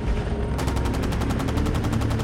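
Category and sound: sound effect, gunfire sound effect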